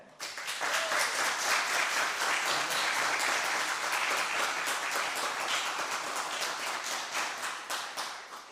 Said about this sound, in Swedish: Men jag kan tycka att när man har kämpat sig igenom ett helt konfirmationsår, hur trött man än har varit, så kan man vara värd en applåd, eller hur?